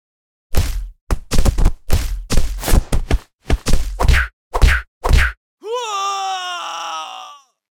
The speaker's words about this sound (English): Was there just some bashing going on in, in the background